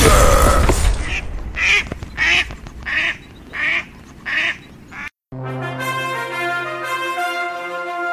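A duck quacks five or six times in a steady, evenly spaced rhythm, loud, after a brief noisy burst, then a bright musical tune takes over.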